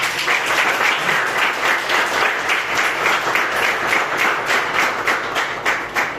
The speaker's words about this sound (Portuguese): Vamos aplaudir Jesus, irmão